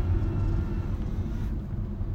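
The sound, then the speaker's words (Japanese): A car rumbles past close by, a heavy low engine and road roar that stays loud and steady for a couple of seconds and eases slightly near the end, with no voices. “今の車危なかったな”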